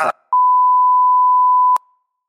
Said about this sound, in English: Who? Who's that last one? I don't know. It got beeped out.